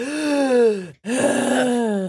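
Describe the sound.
A voice imitates a character's heavy, raspy gasping breaths, breathing heavily from lungs expanded by burns: two long strained, groaning inhale-exhale sounds split by a brief pause, fairly loud, with no speech.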